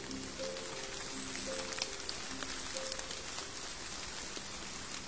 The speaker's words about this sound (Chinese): 哇，静下心来听一听雨的声音，原来下雨的声音可以这么好听呀！这个时候闭上眼睛，都可以感受到小雨滴在身边吧嗒吧嗒的滴下来呢，真的是很好听呀！